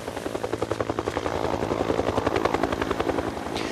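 A helicopter comes in low from the inland sand dunes over a long island beach on a 28-degree day, its rotor blades chopping in a rapid, steady rhythm that grows louder over a few seconds, with a whining engine beneath.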